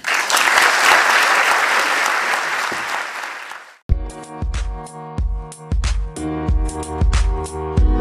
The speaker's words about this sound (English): Um, I think um, everyone deserves another big round of applause.